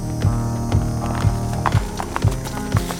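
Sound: horse hooves clip-clopping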